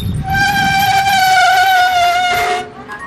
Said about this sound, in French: Là, je vais appliquer les freins.